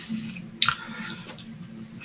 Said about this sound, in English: But this one is just like a good, a good, sweet, appetizing smell for a bourbon. Taking a sip here.